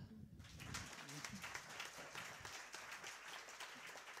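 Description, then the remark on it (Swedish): An audience breaks into steady applause for the speakers, a dense wash of many hands clapping at a moderate level, with a few voices murmuring underneath at the start. “Om ni har lust får ni gärna ge dem en delapplåd.”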